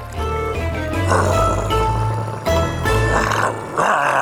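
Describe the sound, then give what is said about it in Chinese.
A dog growls unhappily while biting ever tighter on a piece of meat in its mouth, a low rumbling snarl that swells in several surges over about four seconds, steady and fairly loud with no talking over it. “于是他把肉越咬越紧，还不时发出了不开心的声音”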